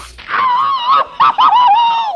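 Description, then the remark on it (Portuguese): A voice lets out a loud, exaggerated Tom and Jerry cartoon-style scream, one long wavering wail broken by a brief catch and then a second drawn-out howl, alone with no talking. “Só faltou aquele gritão.”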